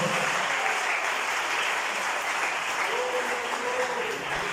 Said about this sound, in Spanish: Denle el aplauso a Cristo Jesús, por favor.